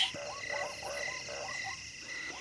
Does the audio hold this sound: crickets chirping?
yes